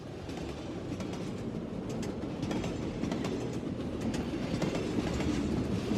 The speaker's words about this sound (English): The train clanked and rattled through the suburbs of Tokyo on a drowsy spring afternoon.